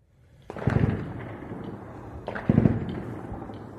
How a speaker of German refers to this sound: Überall um den Mann herum sieht man Rauchsäulen, Blitze, Einschläge. Ohne Unterlass hört man Explosionen und Gefechtslärm, und obwohl ich seine Sprache nicht verstehe, weiß ich doch, worüber dieser Mann spricht.